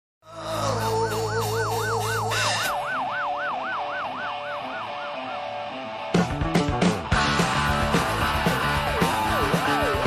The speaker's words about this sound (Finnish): Sitten mainittiin sireeni ääni aikaisemmin, niin kuunnellaan tämä, koska tämä on tietynlainen musiikillinen tavallaan tehokeino